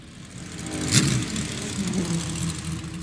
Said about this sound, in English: So, the car you can hear there is a 250 LM, as driven by Max Girardo. We spoke to him briefly yesterday, who told us about the fact that the car is here as a, as a parade, as a display.